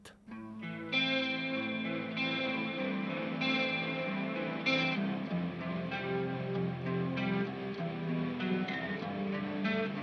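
An instrumental rock intro: loud, distorted electric guitar chords over a steady bass line, with drum hits accenting the beat throughout. No singing or talking.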